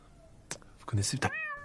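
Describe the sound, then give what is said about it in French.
Brief bursts of talking are cut off by a single short, bright cat meow, dropped in sharply at the end in place of a bleep to censor a swear word. “enfin, une parade un peu marrante, où euh, au lieu de mettre juste des bips, euh, lui, maintenant, il va mettre des bruits d'animaux là.”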